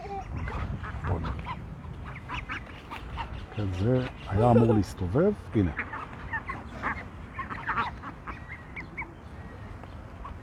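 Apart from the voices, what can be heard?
ducks quacking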